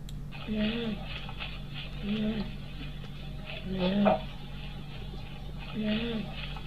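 Stridor recorded from a patient: four harsh, musical, pitched breaths at a steady interval of under two seconds, over a constant low hiss.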